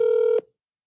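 A single steady telephone keypad tone, loud, lasting under half a second before cutting off abruptly into silence.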